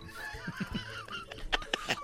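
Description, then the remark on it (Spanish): A parrot squawks in a rapid series of harsh, honking calls, the last few bursts sharper and louder, with no talking. “Es que este perico.”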